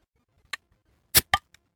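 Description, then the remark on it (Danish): A bottle cap being pried off a rum barrel-aged beer: a light click, then two loud, sharp pops in quick succession and a faint final tick, with no one talking. “Vi skal drikke, øh, hvad hedder det, rum barrel age nu, så skal jeg ikke bare prøve at rive hatten af den jo, også?”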